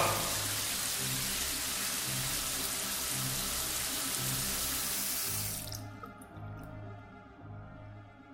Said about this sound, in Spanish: Y lo empujó, mm. completamente vestido dentro de la ducha, y abrió la llave del agua fría. Oh, oh, oh, ¡Está fría!